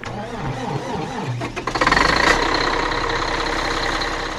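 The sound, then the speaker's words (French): A snow groomer's diesel engine cranks over for about a second and a half, catches with a loud roar, then settles into a steady, rumbling idle. No voices are heard. “je monte dans la dameuse.”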